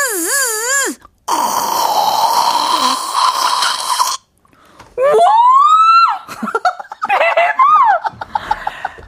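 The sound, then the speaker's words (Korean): A voice imitates a dental clinic machine: a wavering whine, then a long buzzing hiss, a rising squeal and a few shorter warbling bursts, all loud with no speech. “치과 썩정기인데 요거 도전해 보세요.”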